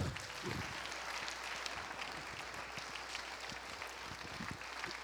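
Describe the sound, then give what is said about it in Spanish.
An audience applauds for the Lord, a dense steady wash of many hands clapping at once, even for several seconds without a pause. “Dele un aplauso al Señor.”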